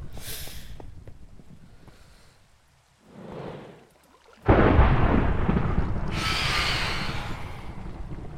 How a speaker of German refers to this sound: Dieses Gewitter nervt mich so hart, Leute.